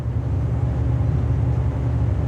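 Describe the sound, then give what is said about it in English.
A steady, low droning hum with a broad rushing noise, constant in loudness throughout, from a fan running, the third of several fans being compared, with no voices. “That's a good fan. It's an amazing fan.”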